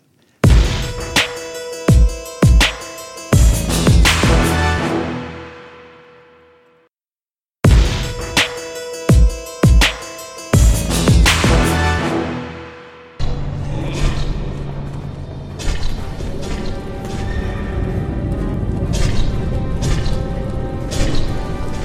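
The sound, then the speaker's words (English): Video game splattering sounds, each a player bleeding out hundreds of hit points from the corrupted blood plague, strike in rapid bursts of wet, punchy hits with ringing decay, then blur into a dense, noisy stretch of overlapping splats and moans of player characters dying from the disease. “Those splattering sounds, each one represents one player bleeding out hundreds of hit points.”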